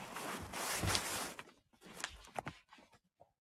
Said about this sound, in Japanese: ちょっとスマホの位置を変えます。じゃらじゃらと音がします。ごめんなさい。